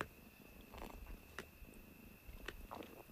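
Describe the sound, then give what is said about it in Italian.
An excited domestic cat purring, a soft steady low rumble that carries on throughout, with a few faint clicks and rustles on top and no one talking. “allora, caro gatto, mi lasci registrare il podcast oppure c'è un'interferenza?”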